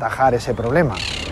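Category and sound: bird, parrots squawking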